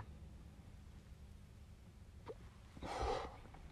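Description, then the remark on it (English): A breathy drag of smoke: one short, airy draw of breath rising out of a quiet background hiss near the end, preceded by a faint click. No one speaks. “good drag, good drag.”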